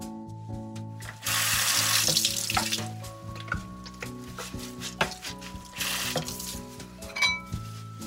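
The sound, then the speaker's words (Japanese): Tap water runs steadily into a sink while a new hard plastic shaved-ice maker is rinsed under it before use, with knocks and clatters as it is handled and turned. No one speaks. “ちょっと待ってね。使う前に洗うから。”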